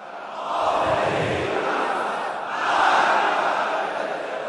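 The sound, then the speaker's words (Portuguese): A large crowd of worshippers at Friday prayers in Iran shouts "Death to America" together in loud, sustained waves of voices, swelling and dipping over a few seconds with no single speaker standing out. “No Irã, durante orações nessa sexta-feira, fiéis gritaram morte à América e prometeram vingança.”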